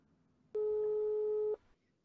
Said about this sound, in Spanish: Estoy marcando el teléfono